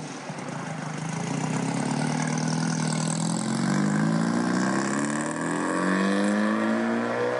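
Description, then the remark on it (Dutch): The Power Cam engine of a 1955 550 Spider race car idles with a deep, steady rumble, then revs up and down several times, the pitch rising and falling with each blip. Loud throughout, with no voices. “Power Cam Engine.”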